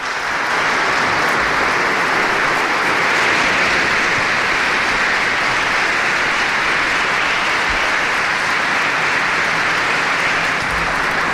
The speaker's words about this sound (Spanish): Recibidas con este fuerte aplauso las primeras palabras de Monseñor Francisco José Prieto como obispo auxiliar de Santiago de Compostela.